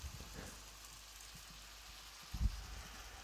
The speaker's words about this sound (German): Frag mich gerade, ob man wohl das Brutzeln hört, aber das wird wahrscheinlich wieder rausgefiltert werden. Na, wenn wir beide ruhig sind und du ein bisschen näher rangehst.